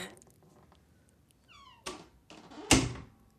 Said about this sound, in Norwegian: Vi er på Stortinget, som i dag altså feirer 150 år. Vi går inn en eldgammel dør.